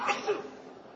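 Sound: sneeze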